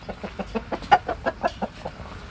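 Several chickens, hens and roosters, cluck in a rapid, uneven patter of short clucks, about a dozen in quick succession, with no voices, inside a henhouse among apartment buildings.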